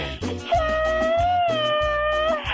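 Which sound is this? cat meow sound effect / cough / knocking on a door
cat meow sound effect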